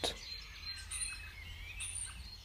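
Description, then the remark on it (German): A bird sings in short, high chirps and trills scattered across a few seconds, fairly soft, over a low background hum with no one talking. “Er singt ohne Grund.”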